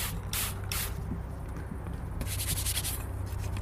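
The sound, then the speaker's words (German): Several quick hissing sprays of disinfectant onto a clipboard with paper, two short bursts followed by a longer one and a final brief spurt, over a steady low hum with no one talking. “So, jetzt bekommst du auch noch eine Kladde von mir mit Zettel, nochmal desinfizieren.”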